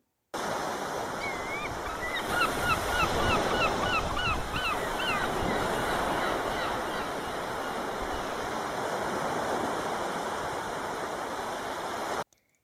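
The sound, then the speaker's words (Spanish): Steady ocean waves wash and roar continuously, with a brief burst of repeated honking bird calls cutting through the surf early on. No voices are heard. “Pequeño, ya estamos en el océano.”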